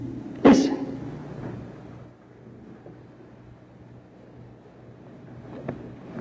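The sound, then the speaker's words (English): A sharp knock on a door rings out near the start, followed later by a faint, isolated tap, all over a low, steady rumbling hum with no one talking. “If you haven't opened it already, he's knocking today.”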